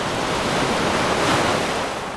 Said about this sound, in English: A storm hit Koh Samui, A big storm, and with it, waves. Big waves finally some waves on Koh Samui.